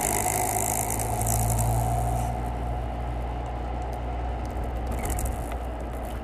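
A car engine rumbles steadily while driving, a low continuous drone with faint road noise on top, heard from inside the vehicle and never pausing.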